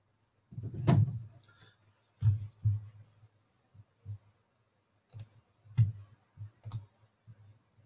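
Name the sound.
typing on computer keyboards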